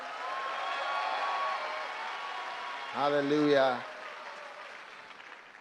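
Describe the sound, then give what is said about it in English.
A crowd gives a female speaker a clap offering, applauding steadily with dense, continuous clapping that tapers off toward the end, while a single voice briefly calls out over the noise. “Wow, why don't you give her a better clap offering?”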